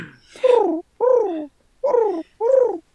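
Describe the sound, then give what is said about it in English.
A person imitates a pigeon's coo with four throaty hoots in a steady rhythm, each a low warbling call with a slight downward bend and brief pauses between them. “I I see a pigeon on the street and I get on my hands and my knees and I go.”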